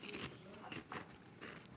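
Loud crunching of a crisp stacked potato chip, a rapid series of brittle cracks and crackles as it is bitten and chewed, with no talking.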